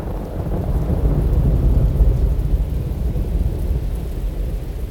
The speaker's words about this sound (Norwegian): Og den natta var det et sånt forferdelig tordenvær at de kunne ikke gå noen sted.